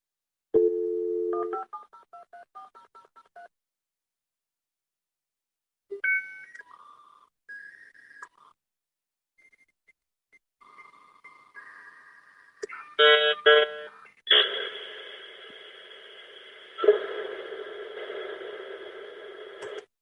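A dial-up internet modem connecting over a telephone line: a short run of touch-tone dialing beeps, then warbling tones and chirps, and finally a loud, sustained burst of hissing, screeching static.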